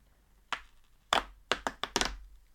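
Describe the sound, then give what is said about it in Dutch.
A quick, uneven burst of about six sharp claps or taps, fairly loud, made by a person imitating crackling fireworks while opening a door of a Christmas advent calendar, with the last few pops bunched tightly together. “Ja, en dan vooral weer dat geluid wat dit mooie kerstdeurtje met zich meebrengt als vuurwerk.”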